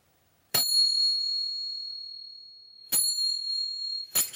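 Small Turkish finger cymbals, the kind dancers use in their dances, clink slowly and brightly, each strike leaving a long shimmering ring; two spaced strikes are followed by a quicker pair at the end, clear with no talking.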